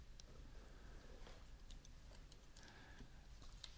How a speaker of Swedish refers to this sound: Nej, jag, jag, hör, jag hör klickande. Jag tror han sitter på internet. Ja, det, det är jag som klickar jag började, ja. jag skulle googla först men...